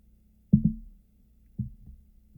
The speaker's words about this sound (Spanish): Y vamos a probarla. Ya saben, primer trago y ya el segundo trago.